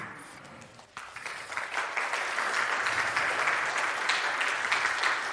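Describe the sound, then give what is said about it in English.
An audience stands and applauds as a man walks out, starting quietly and swelling after a second into a steady, dense wash of clapping that holds at an even level to the end, with no talking over it. “Yeah, everybody stand up and applaud as he walks out.”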